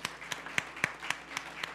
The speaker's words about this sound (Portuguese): Quantos aqui estão nos visitando pela primeira vez? Dá um tchau para mim assim. Ô oh, benção, que benção. Vamos aplaudir esse povo? Amém?